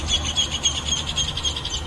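Small birds chirp on a very cold Monday morning in a quick, steady run of high, bright tweets, repeating several times a second at moderate volume over a low, rumbling outdoor background with no talking.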